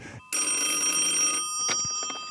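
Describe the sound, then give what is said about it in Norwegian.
An old-fashioned telephone bell rings loudly in one sustained metallic trill lasting about a second, followed by a brief clatter like a receiver being picked up. “Ja, Ja, ikke mas av deg, jeg som ringer her.”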